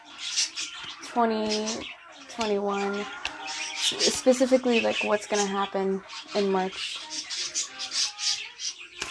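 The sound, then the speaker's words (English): Pet birds chirp and squawk steadily in the background throughout, excited while a person reads aloud; a busy high-pitched chatter running beneath the person talking in the foreground. “Uh, my birds, they get really excited whenever I'm reading.”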